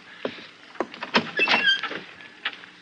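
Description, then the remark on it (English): A guard opens a heavy door, with a series of wooden clunks and knocks followed by a short creak and scrape, then a final thud. No one speaks. “Guard, open the door.”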